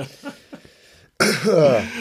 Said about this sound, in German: Und damit sind wir drinnen mit diesem Huster. Leicht, fertig, zumindest ähm, von meiner Seite ziemlich angeschlagen, ja.